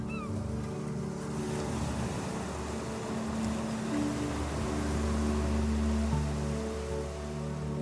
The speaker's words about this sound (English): When ready, imagine you are lying on a sandy beach with the tide creeping ever closer to you.